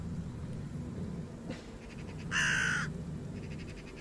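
A raven gives one loud, harsh caw, its rasp trailing off into faint echoing repeats, set against a steady low rumble with no one speaking.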